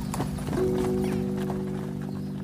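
Horse hooves clip-clop steadily alongside the rolling rumble of a wagon, with a brief whinny-like tone early on; the sound is fairly loud, with no talking.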